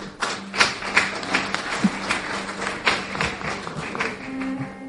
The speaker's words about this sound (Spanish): ¿Ya? Lo ve como Zaragoza no ha sido muy, efusivo el aplauso, ¿eh? Pero porque somos poquicos.